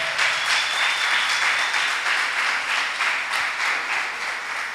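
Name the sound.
audience applauding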